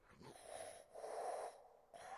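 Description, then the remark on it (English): A voice imitates the labored, wheezing breathing of an infant son who had a hard time breathing: three raspy, strained breaths in a row, each with a rough whistling edge, fairly quiet, with short pauses between them. “And so he had some development developmental stuff and he had a hard time breathing. Like he sounded like, like,”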